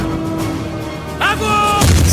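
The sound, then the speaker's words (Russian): Artillery shells fired by gun crews explode near German bunkers, a sharp descending whine followed by a heavy, booming blast and low rumble, set against a constant background roar, fairly loud. “Снаряды, выпускаемые артиллерийскими расчетами, ложатся рядом с немецкими дотами.”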